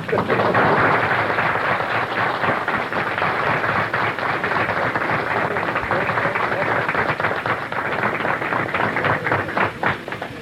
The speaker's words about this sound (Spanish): Pedimos un gran aplauso para él.